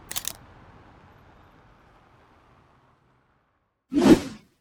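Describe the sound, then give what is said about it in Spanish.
A camera shutter clicks twice as a man photographs two tourists at the Charging Bull statue in New York: a brief, sharp snap at the start, then after a quiet pause a louder, fuller shutter sound near the end, with no one speaking. “Excuse me, sir, could you please take a picture of us? Sure, no problem. Say cheese.”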